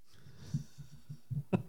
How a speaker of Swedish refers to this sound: när du tuggar på din penna så flåsar du också i mikrofonen så vet du om det.